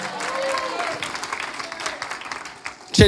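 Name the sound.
audience applause and cheering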